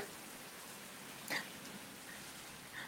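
Steady rain hisses evenly throughout, a dense wash of falling drops with one brief louder splash or patter near the middle. No voices are heard.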